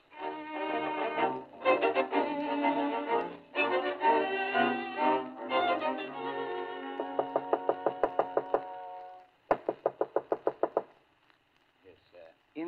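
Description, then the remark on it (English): A rapid rapping knock on a door in a radio program, Mr. Martin calling on Miss Novak: two quick bursts of about eight sharp, evenly spaced taps each, following a stretch of bright tonal music. “Incidentally, whenever you hear that particular rapping on that particular door, ladies and gentlemen, that means Mr.”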